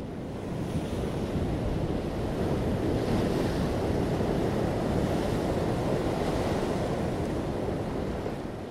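Ocean waves break on a shore in a steady roar of rushing surf, swelling slightly now and then, with no voices over it.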